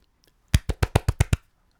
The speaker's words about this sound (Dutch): Eh, even een applausje. Kom op, please. Ook even applaus.